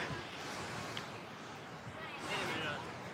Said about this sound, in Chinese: 今天离这个瀑布比较近啊，这个噪音比较大，所以我只能使一个手拿着这个麦克风录啊。